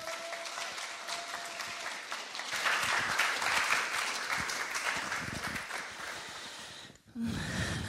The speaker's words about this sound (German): Ein Applaus